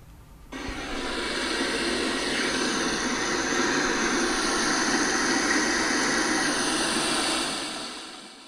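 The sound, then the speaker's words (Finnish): A dense, steady hissing rush recorded underwater, the fizz of bubbles from breaking waves, rising abruptly and holding loud and even for several seconds before easing off. “Ja murtuvat aallot synnyttää ilmakuplia, mitkä kohisee vedessä.”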